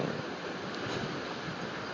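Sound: sea waves and wind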